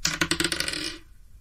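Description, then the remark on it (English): Red dice, rolled for a persuasion check, clatter and tumble across a hard tabletop in a quick burst of rattling taps that settles and stops after about a second. Fairly crisp, with no voices. “Come on, red dice.”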